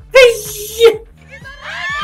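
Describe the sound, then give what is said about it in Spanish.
A loud, high-pitched excited scream bursts out and holds steady for most of a second, then trails off. A fainter, rising squeal follows shortly after. “Y aquí me tomo mi, un grito para mí.”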